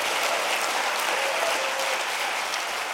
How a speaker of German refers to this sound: Der langanhaltende Applaus für Shalikar machte nicht nur den unterschiedlichen Blick auf die Situation in Israel und im Gazastreifen deutlich, sondern ist auch ein Indiz für die Geschlossenheit der jüdischen Gemeinden in Deutschland.